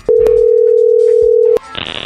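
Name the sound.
telephone ringing tone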